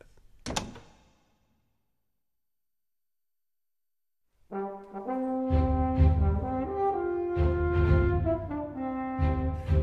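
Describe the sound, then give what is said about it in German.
A bedroom door is quietly shut and locked with a single soft thunk and click near the start, followed by a few seconds of silence before music swells in and plays to the end. “Mr. Fogg verschwand im Schlafzimmer und verschloss hinter sich leise die Tür”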